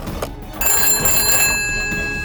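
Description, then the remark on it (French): A telephone rings with a bright, sustained trill that starts abruptly and holds steady for a couple of seconds, fairly loud over a faint low rumble, with no one talking, as a man phones his business partner at about 7 a.m. “Il téléphone à son associé.”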